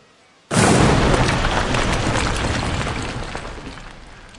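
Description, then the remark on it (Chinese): A sudden loud crack of thunder bursts in after a brief hush, then rolls into a heavy, deep rumble that slowly fades over several seconds, with no voices. “突然之间，响声四起，雷声大作”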